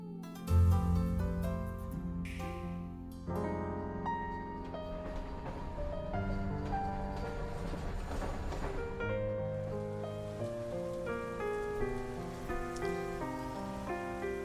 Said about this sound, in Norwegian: Det du hører i bakgrunnen her nå, det er lyden fra dataspillet Embracelet, som eh, nylig inntok Den kulturelle skolesekken.